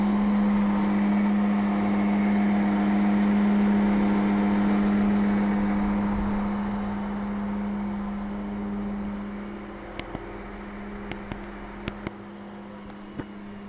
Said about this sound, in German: Ich stand hier an so einem Zug mit einem Dieselmotor und bin mal recht nah rangegangen mit dem Gerät, habe das also mal richtig an den Zug gehalten.